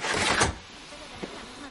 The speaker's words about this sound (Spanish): Va hacia la puerta y la cierra. Baja la cortina de la puerta y se cierran todas las del vagón.